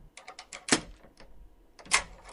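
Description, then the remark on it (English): An apartment door pulls shut with a solid clunk amid a quick run of sharp clicks, followed by more latching sounds and a final heavy snap as several locks are fastened, with no voices. “I'll get the door behind you.”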